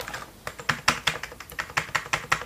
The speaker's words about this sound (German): Ich weiß jetzt nicht, ob da Alps drin sind. Müsste ich mal ausbauen. Ich glaube, es klingt aber nicht nach Alps. Nee, ich glaube, das klingt nicht nach mechanischer Tastatur. Klingt dafür zu leise.